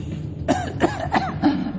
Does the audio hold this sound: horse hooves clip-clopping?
no